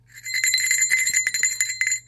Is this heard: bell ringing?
yes